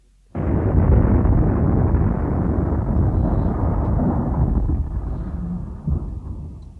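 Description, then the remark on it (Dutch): A massive earthquake rumble bursts in abruptly and roars on without pause, a deep, loud, sustained low rumble with rattling texture that barely fades over several seconds, the ground trembling underfoot. No voices. “We horen een enorme aardbeving en de grond trilt onder onze voeten”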